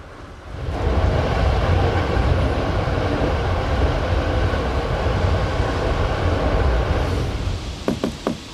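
A train with sleeping cars rumbles steadily along the rails, a deep continuous roar with rhythmic clatter, heard from inside a carriage; near the end a few sharp metallic clicks and knocks cut through.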